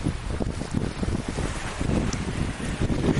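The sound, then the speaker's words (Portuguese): A cold breeze blows steadily outdoors, continuously and fairly loudly, buffeting the microphone with a low rumbling roar and brief gusty swells, with no voices present. “Então mesmo com esse calor aqui, eu tenho essa aguinha aqui que ainda é água é quentinha, você consegue entrar se refrescar com um ventinho frio.”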